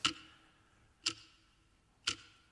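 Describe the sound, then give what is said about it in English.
A clock ticks steadily, three crisp clicks spaced about one second apart, each with a short ringing tail, alone against a quiet background. “The ticking of a clock reminds us of the passage of time.”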